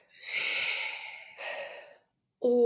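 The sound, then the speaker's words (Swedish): A slow, deliberate breath pushed out audibly, a long airy exhale followed by a shorter second breath, fairly loud, then a voice begins right at the end. “Att hela tiden när du andas in, andas ut, eh, så andas du in Javé.”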